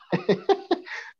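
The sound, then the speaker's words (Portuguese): A person clears their throat in four quick, rough voiced bursts, then lets out a short breathy exhale. The sound is moderately loud and stands alone, with no talking. “Mas, Pigarro assim, aqui.”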